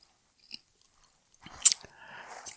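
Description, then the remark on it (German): A sharp crunch as someone bites into a crunchy snack, followed by a second or two of chewing, after a few faint clicks in near silence. “Genau, nochmals eine Knusper.”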